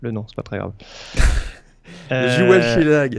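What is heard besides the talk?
sneeze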